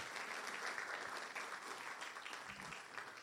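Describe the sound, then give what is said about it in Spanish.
An audience applauds the Lord, the Heavenly Father, during a Father's Day sermon: a steady, dense, even wash of many hands clapping at once that holds at a constant level for a few seconds without any voices over it. “Vamos a darle un aplauso al Señor, a nuestro Padre Celestial.”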